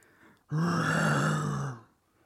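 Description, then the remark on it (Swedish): A person imitates a bear with one sustained, deep growl lasting just over a second, loud, with a rough rasping texture before it cuts off. “Jag kan bara höra det här björnlätet också.”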